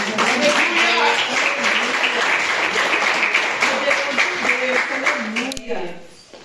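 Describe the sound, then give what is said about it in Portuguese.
A church audience applauds steadily in worship of the Lord Jesus for several seconds, dense clapping with voices calling out over it, before the applause tapers off abruptly near the end. “Eu agradeço a oportunidade, as palmas que adoram o Senhor Jesus.”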